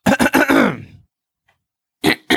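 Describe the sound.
A voice imitates a throat-clearing as a sound effect: a few quick, gravelly rasps sliding into a falling, drawn-out grunt, then a brief silence and two more short rasps, fairly loud.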